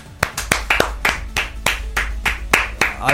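Steady, evenly paced hand clapping: about a dozen sharp, crisp claps in a regular rhythm, moderately loud, with no voices over them.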